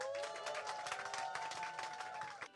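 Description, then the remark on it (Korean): A crowd claps steadily and densely for a couple of seconds to bless and welcome a pastor as he comes forward, with a sustained musical tone ringing underneath before it trails off. “그래서 우리 나오실 때 큰 박수로 한번 축복하면서 환영했으면 좋겠습니다.”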